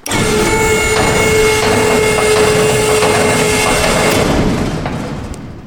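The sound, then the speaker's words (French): A motorized telescope enclosure closing in Mistral wind: a loud mechanical whir with a steady hum and rattling grind that runs continuously for several seconds, then tapers off as it stops. “Euh, c'est pour ça qu'il va peut-être mieux qu'on ferme le, le, simi avant de partir. Eh bien on va fermer.”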